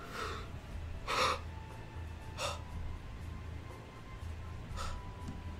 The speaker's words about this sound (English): as we get a fair distance away, I, uh, I have a breakdown. just breathing heavy, just.